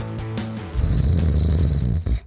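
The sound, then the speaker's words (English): A man snores loudly, a short harmonic intake followed by a long, rough, rattling snore that fades out after about two seconds. “wake up. We've got a show to do.”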